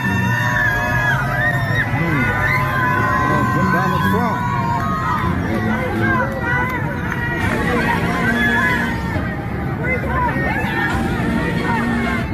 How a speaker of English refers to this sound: No, they were chanting, Free Donald Trump, free Trump. That's what they were saying.